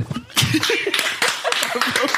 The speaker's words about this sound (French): Applaudissements.